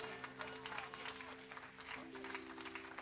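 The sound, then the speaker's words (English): An audience gives a clap offering for the Lord during a sermon, a dense, steady wash of applause lasting the whole few seconds, with sustained low keyboard or organ tones humming underneath. “A super clap offering for the Lord.”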